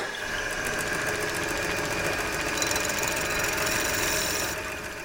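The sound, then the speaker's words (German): A steady mechanical whirring and rapid knocking from a rotating knife machine cutting a soft lead organ pipe to its correct size during organ pipe making, running continuously with a bright, gritty metallic edge throughout; no one speaks. “Das ist ein rotierendes Messer und das ist so ziemlich die einzige Maschine, die man normalerweise beim Pfeifenbauen hat.”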